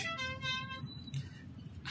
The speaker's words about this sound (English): you hear that honk.